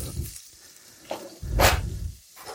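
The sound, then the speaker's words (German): Fish fingers sizzle and crackle as they fry crisp in a pan, with low scraping thumps as they are shifted around and a louder hissing burst midway; no one speaks. “Ich habe hier schon mal ein paar äh, Fischstäbchen oder wie der Engländer so schön sagt, Fischfingers in die Pfanne geworfen und brate die gerade kross an.”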